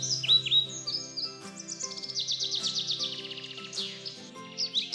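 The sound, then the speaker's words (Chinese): A small bird sings in a singing contest, a quick, bright series of high, downward-sweeping chirps and trills, fairly loud, over a steady musical accompaniment with sustained low notes; no one speaks. “小鸟开始唱歌了。”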